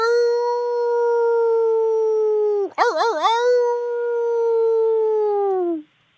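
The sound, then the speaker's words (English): A person imitates a werewolf howl: one long, loud, steady mid-pitched tone that breaks into a brief wavering warble midway, then resumes and slides down as it fades out. “Wait, can we howl together? Because wolves have to howl in a pack, right?”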